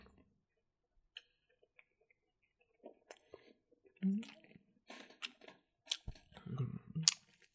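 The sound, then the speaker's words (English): Chewing of a sausage: wet, irregular smacks and clicks of munching, sparse at first and then coming thicker and louder toward the end, with no talking. “I'm munching on a sausage.”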